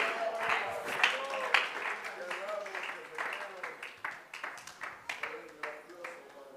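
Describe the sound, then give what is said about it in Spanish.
A church audience claps in praise of the Lord in a steady, uneven patter of sharp hand slaps, mixed with scattered voices calling out, continuing throughout at moderate loudness. “Solo un testigo que ya haya recibido respuestas, testifíquelo alabando al Señor y aplaudiendo su presencia y glorificando su nombre.”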